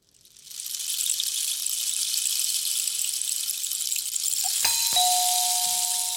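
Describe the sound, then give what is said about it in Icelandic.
A rain stick, a tube filled with shell fragments, pours out a steady, high, rushing hiss of tiny pattering beads that lasts several seconds, with a brief ringing, bell-like tone cutting in near the end. “veit ekki alveg nákvæmlega hvað heitir en þetta er svona rör sem er með skelljabrótum Nákvæmlega, þetta er regnstokkur Regnstokkur”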